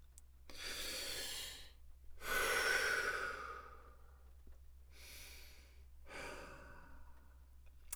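Slow, deep breaths drawn in and let out, about four long airy breath sounds with pauses between, fairly soft, with no talking.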